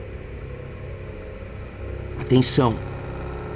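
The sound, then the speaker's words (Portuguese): The kidnappers' Gol 1000 car approaches, its engine humming in a steady low rumble, growing slightly louder as it draws near, while a man briefly shouts over it. “Carro se aproximando.”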